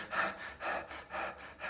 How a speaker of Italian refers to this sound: Ovviamente lo sto esagerando per renderlo più facile da capire ok? Ma abbiamo fatto una volta un esperimento in un corso dove c'era un gruppo di persone a cui abbiamo, fatto, cioè abbiamo dato delle indicazioni. Dovevano respirare in questo modo